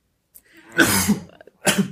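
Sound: cough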